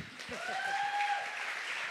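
An audience claps steadily throughout, a dense wash of applause, while a clear sustained whistle-like tone rises and holds above it for about a second.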